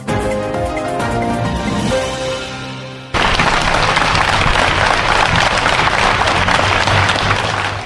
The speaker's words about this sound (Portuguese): Foi com uma chuva de palmas que a população, autarcas, governantes e elementos das forças de segurança receberam no Rocio Almeida Henriques. Milhares de pessoas estiveram junto à Câmara de Viseu para se despedir do autarca que morreu ontem,